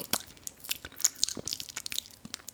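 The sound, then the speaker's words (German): Wet, smacking chewing noises with crunchy bites, a rapid irregular series of sharp clicks and squelches continuing for a couple of seconds, with no talking. “die mögen Schmatzgeräusche nicht und ganz bestimmte Geräusche können die nicht ausstehen”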